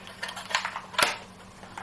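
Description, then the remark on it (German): A plastic double cassette case, which holds two cassettes side by side, clacks open and shut. There are a few hard, bright clicks with a sharp snap near the middle, followed by softer rattling handling sounds, with no one talking. “Es gab aber auch noch Kassettenhüllen, das war eine Doppelhülle.”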